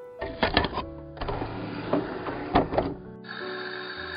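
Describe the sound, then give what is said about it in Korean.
A borrowed CD player, started by pressing its triangle play button in a dark study room, whirs and clicks as the disc spins up: a few quick mechanical rattles and ticks, then a steady, even motor hum that settles in and holds. “도르륵 하고 CD 돌아가는 특유의 소리가 나더니 이윽고 기타와 드럼 소리가 나지막이 내 귓가에 울렸다.”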